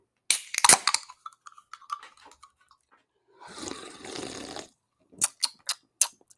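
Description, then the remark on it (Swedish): Glasses clink together in a toast with a bright ring that fades over a couple of seconds, then a soft rushing noise, then a quick run of sharp taps. No one speaks. “Skål på er brorsan. Skål.”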